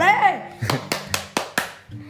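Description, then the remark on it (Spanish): A child claps five times in a quick, steady rhythm, each clap sharp, after a short burst of high-pitched childish vocalizing at the start. “¿Está aplaudiendo eso qué?”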